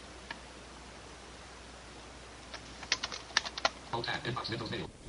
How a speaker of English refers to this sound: you've got the microphone, but you don't seem to be talking. You seem to be typing.